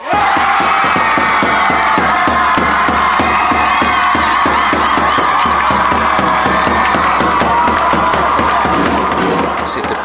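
A dense crowd of young people cheers and shouts continuously in the stands at Fyrishov during Friskolekampen, where the independent schools from around the town gather, with rhythmic stomping or clapping pulses running underneath the loud, sustained roar.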